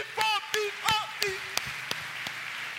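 An audience applauding: a handful of sharp, scattered claps at an uneven pace, joined early on by raised voices calling out, then thinning to a few isolated claps.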